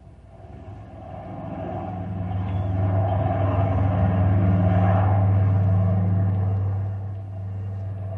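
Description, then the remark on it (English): Deep, steady drone of a large freight plane's engines as it slowly descends to land on the runway at the Knotty Pine airfield, a low throbbing hum that swells louder through the middle and eases slightly near the end, with no voices. “A large freight plane is heading toward the Knotty Pine airfield.”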